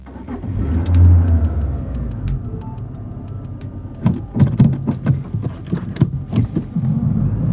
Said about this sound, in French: J'avais placé un micro caché dans la voiture et on a roulé en discutant pour ne pas éveiller de soupçons.